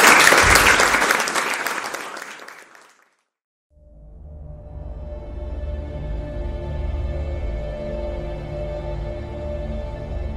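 An audience claps loudly for about three seconds, the applause thinning and fading to a brief silence, after which a steady, droning tonal sound sets in and continues to the end.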